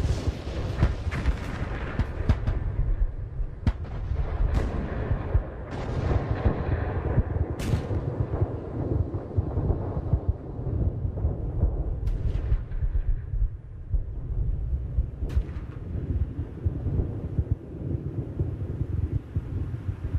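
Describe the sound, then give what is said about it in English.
World War One artillery fire at 10:59 a.m., just before the 11 a.m. ceasefire that ended the war, rumbles on without pause, a dense low roar of overlapping booms punctuated by several sharp, cracking blasts at irregular intervals. No voices. “ceasefire was for 11 a.m. This is 10:59 a.m.”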